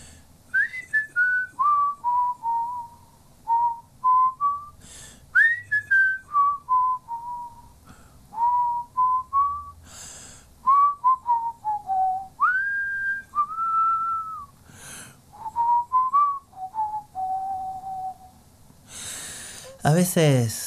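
Someone whistles a slow melody up close, in short phrases that dip and glide, with audible breaths between them and a brief noisy burst near the end.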